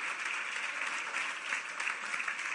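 Steady audience applause fills the whole stretch, a dense crackle of many hands clapping at an even, sustained level with no talking over it.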